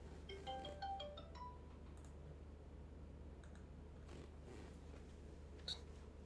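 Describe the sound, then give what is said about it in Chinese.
A mobile phone rings with a quick melodic ringtone of bright, stepping tones for about a second and a half, followed by scattered soft clicks and taps over a steady low hum. “打来，等一下哦，先处理掉。手机在哪？”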